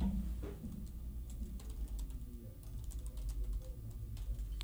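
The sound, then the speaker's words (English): Rapid, irregular clicking of fingers typing on a computer keyboard, fairly quiet, running steadily over a low background hum with no one speaking; someone typing to grab the results of the Grizz Pro Day in Montana. “But here, I was just typing on my computer because I'm trying to grab the results here because Eric Tabor from Montana Sports Information just uh, set these out.”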